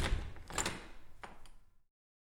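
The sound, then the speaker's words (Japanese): A few sharp knocks on a door at the Kanazawa Bank head office, fairly loud, spaced unevenly, followed by a brief rattle as the door is opened, then silence. No voices. “ドアをノックしそれを開くと”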